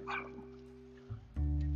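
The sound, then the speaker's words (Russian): A dog that has come loose from its leash and run off gives a quick yip and short bark, followed by a loud, sustained low rumble near the end, with no one talking. “Отцепился, убежал. Эй, иди ко мне.”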